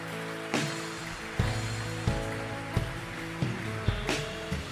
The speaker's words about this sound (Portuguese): Em nome de Jesus, aplauda aquele que é santo. Amém?